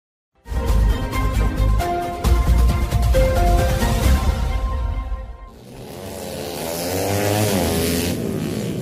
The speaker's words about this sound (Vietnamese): Mười giờ sáng ngày 21 tháng 12 năm 2021, có mặt tại cầu Cống Cái Lớn, phóng viên đã ghi nhận có hơn 15 phương tiện mô tô, xe gắn máy thay phiên rú ga, nẹt bô, vì với tốc độ nhanh, thậm chí bốc đầu xe như đang phô diễn tài lái